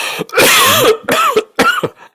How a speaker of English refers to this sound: I still have a residual cough.